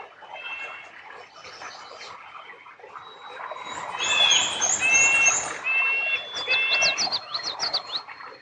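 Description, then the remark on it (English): A busy chorus of birdsong at a beaver dam: several birds chirp and whistle at once in repeated bright phrases, with louder calls rising in the middle, over a steady outdoor background. “just listen to how much bird song there is here.”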